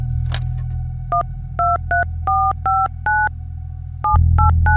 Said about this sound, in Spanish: En su sucursal, la telefonista encontró el número y le pidió a la gerente que marcara desde el teléfono de su oficina, ya que los teléfonos de mostrador están bloqueados y no pueden realizar llamadas.